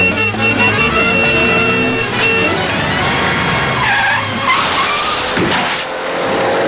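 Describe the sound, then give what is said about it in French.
A car driven by a 95-year-old woman roars and revs loudly while tires squeal and skid, with steady harmonic engine tones giving way to sweeping screeches; no voices are heard. “Voici en exclusivité pour Pontac Radio un audio de son tour de voiture.”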